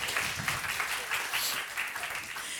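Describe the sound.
A crowd applauds warmly at the opening of the Lund Comedy Festival, the audience applauding themselves for being there: a dense, steady wash of many hands clapping that holds at an even level throughout, with some voices faintly mixed in underneath.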